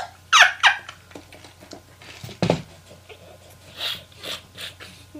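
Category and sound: human body sound, heavy coughing fit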